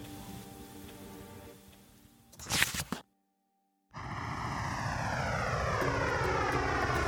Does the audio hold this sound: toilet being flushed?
no